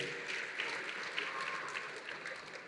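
A church audience cheers and shouts hallelujah in praise of the Lord, a dense steady wash of many hands clapping and raised voices, sustained throughout without a break.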